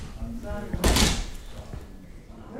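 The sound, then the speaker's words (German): A door in a side annex leading into a small museum foyer in Worpswede opens and closes with one loud thump, heard over a low background murmur of indistinct voices and room noise. “Durch eine Tür in einem seitlichen Anbau geht es durch ein kleines Museumsfoyer mit Garderobe, Kasse und Shop hinein in den geschichtsträchtigen Haupttrakt.”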